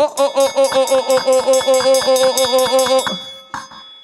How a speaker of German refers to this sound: Also, wenn du ansatzweise schon mal nachtragend warst, wäre das, dass diese Glocke eigentlich hier versucht durchzuticken. Lauter kann ich gar nicht mehr schlagen.